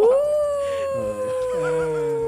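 A dog lets out a long, loud howl that rises at the start and then holds a steady pitch for a couple of seconds, with softer howling tones layered underneath.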